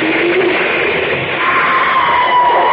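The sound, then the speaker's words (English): A woman's drawn-out scream rises over a loud, dense roar of fire as a burning cabin collapses, the noise steady throughout. “was her scream”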